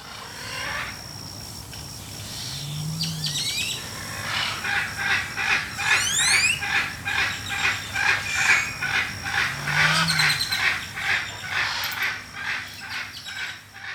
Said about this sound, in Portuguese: A gente chegou numa parte em que a gente viu, escutou aquele. A gente olhou pra cima, eram duas araras, assim, arara vermelha, aquela arara clássica.